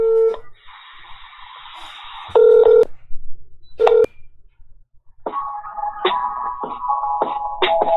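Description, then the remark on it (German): Telephone keypad tones beep as a number is dialed, with short steady tones separated by brief pauses, then a warbling ringback-like pattern follows, clear with no talking. “Dann probier es jetzt nochmal mit angezeigter Nummer.”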